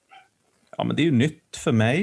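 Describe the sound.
A single short, faint dog bark or yip in the background at the very start, followed by a person speaking up close.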